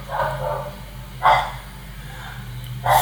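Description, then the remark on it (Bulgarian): Dogs bark a few times, with short separated barks over a steady low hum and no talking. “Това лаещи има маймуни ли си или лаещи кучета? Има и кучета тук.”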